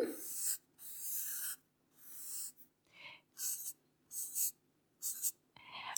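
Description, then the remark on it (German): A pen scratches across paper in a series of quick, close strokes, some long and sweeping, others short and choppy, with brief pauses between them and no voices. “Und das ist, ui, ich glaube, der Stift läuft aus. Kann ich vielleicht eine Serviette haben?”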